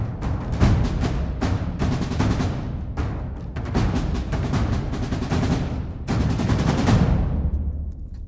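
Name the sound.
gunshot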